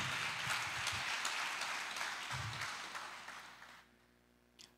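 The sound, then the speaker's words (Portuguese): An audience applauds: a dense, steady wash of many hands clapping that holds for several seconds, then thins and fades out, leaving near silence with one faint final clap. “Pode aplaudir.”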